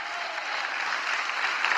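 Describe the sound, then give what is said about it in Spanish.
A church audience applauds for the Lord during a sermon, a steady dense wash of many hands clapping at an even loudness throughout, with no voices standing out. “Dele fuerte y aplauso al Señor.”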